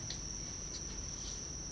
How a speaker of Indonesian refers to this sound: itu jangkrik dari mana nih iya omong ngomong kita lagi di puncak kayaknya kayaknya banyak jangkrik